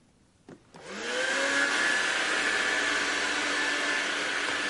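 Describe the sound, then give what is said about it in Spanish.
A click, then a vacuum cleaner, used by a woman to clean a kitchen, whirs up to speed and keeps running with a steady, loud roar and a thin high whine. Nobody speaks. “La mujer limpia la cocina con un aspirador.”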